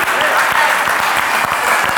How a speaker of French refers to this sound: Ça mérite une acclamation quand même. Ah oui Alléluia Ça mérite une acclamation.